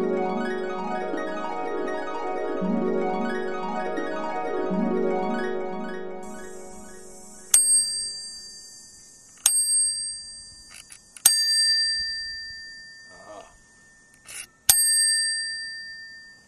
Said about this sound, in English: I've learned the trick. You have to pull the uh, the little uh, spring back just a little bit further get that bigger bell sound.